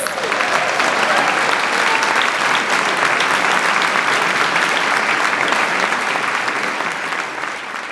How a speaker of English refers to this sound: As soon best. as he like came out from around the corner, we all gave him a round of applause.